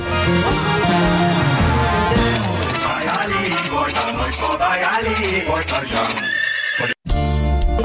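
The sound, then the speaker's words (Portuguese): A horse whinnies as it passes on a farm, amid a loud, busy stretch of music with singing voices. The neighing blends into the dense mix rather than standing alone, and hoofbeats are hard to pick out. “lá na granja, passando com cavalo.”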